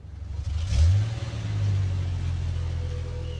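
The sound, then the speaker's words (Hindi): A car being driven away from a party revs up and accelerates, its low rumble rising sharply in pitch around the first second, then settling into a steady, fairly loud drone with no talking. “Sandy car चला तो रहा था मगर वो रिया के घर की तरफ नहीं किसी और ही दिशा में जा रहा था”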